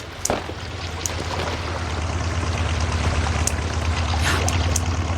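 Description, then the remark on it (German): A borrowed motorboat's engine drones with a steady low hum over splashing, rushing water, growing slightly louder as it approaches, in the evening at Malibu. No one speaks. “Hört ihr das? Ein Motorboot.”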